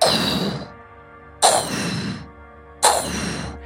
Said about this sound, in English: as trees and branches snap, making way for this massive beast just beyond your vision.